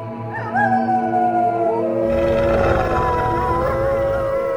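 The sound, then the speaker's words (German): Several wolves howl together in long, wavering, overlapping calls that rise and fall, growing fuller and louder midway as more voices join in a dense chorus. “Hört nur, die Kinder der Nacht, wie sie Musik machen.”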